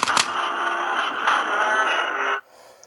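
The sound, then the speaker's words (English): An action figure toy's electronic jackhammer punch sound effect plays loud through a tinny speaker, a buzzy, rattling blast lasting over two seconds before cutting off abruptly into quiet. “that's the jackhammer punch.”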